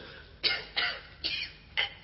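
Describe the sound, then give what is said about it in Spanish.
A man coughs four times in a steady, rough rhythm, each cough a short raspy burst with brief pauses between, moderately loud, with no talking. “comienza a toser.”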